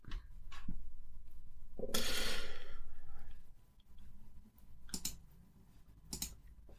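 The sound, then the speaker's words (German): A few sharp computer mouse clicks land at irregular intervals, with a long breathy exhale in the first half and quiet background noise between them; nobody speaks. “Klickst du dich gerade irgendwie durchs Internet”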